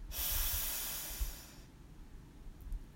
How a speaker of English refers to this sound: Let's take another deep breath in through our nose, hold and release with a loud sigh.